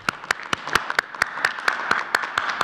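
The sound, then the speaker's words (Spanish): A group applauds a doctor after his account of the epidemic, with a steady rhythmic beat of sharp claps standing out above a continuous bed of scattered clapping, moderately loud, with no voices. “Un aplauso, dice. Perfecto. Vamos a un aplauso.”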